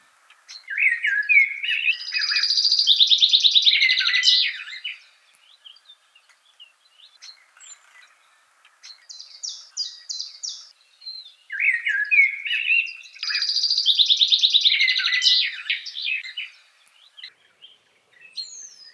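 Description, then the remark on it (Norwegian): Birdsong rings out clearly in two long, intricate bursts of chirping and warbling, separated by a brief quieter gap with a few scattered calls. No voices are present. “det er ikke alle som bryr seg om det, men jeg tror de fleste mennesker syns det er litt deilig å høre på fuglesang.”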